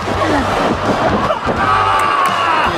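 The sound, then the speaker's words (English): A loud, dense wrestling crowd roars and cheers continuously during a match between Okada and Kenny Omega, a wall of overlapping shouts and whoops that swells with sharp bursts of excitement throughout. “This crowd is on fire!”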